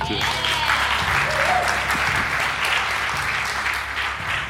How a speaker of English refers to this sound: Thank you so much for that. Can we give him another hand?